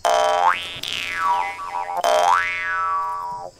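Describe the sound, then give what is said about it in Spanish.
A Mongolian jaw harp twangs in two loud plucks, each a buzzing drone whose tone sweeps up and back down in a springy, boing-like wah, played alone with no voices. “Este es el mismo instrumento, pero este viene de Mongolia.”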